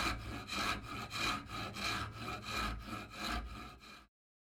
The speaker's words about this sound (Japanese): 木枠にはガラスをあてがう溝が切ってあるが、陣川はそれの一部を美濃や彫刻刀のようなものを使ってさらに掘り込んだ。